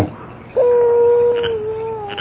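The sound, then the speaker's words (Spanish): A dog lets out a single long, high whimpering whine, steady and drawn out before tapering slightly, clear over faint background noise. “¿Qué le gruñes tú”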